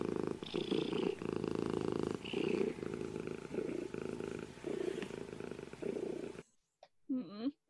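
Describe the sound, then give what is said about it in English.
A cat purrs loudly, a steady rumbling that swells and dips with each breath for several seconds, then cuts off, followed by a brief voice-like sound. “i'm just glad i have a cat right now he's so cute”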